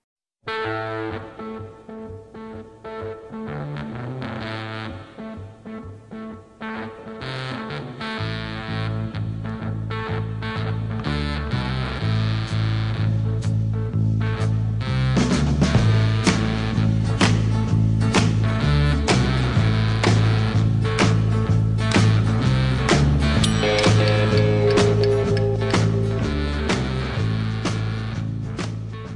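A gritty electric guitar riff repeats over a steady rock beat with bass, loud, building into a fuller band groove halfway through. No one speaks.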